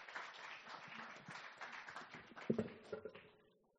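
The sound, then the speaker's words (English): An audience applauds a guest speaker as he comes up, with a dense, steady patter of many hands clapping together. The clapping thins out after a few seconds into scattered claps and room noise. “So you guys give him a round of applause, and I'll pray for him when he comes up.”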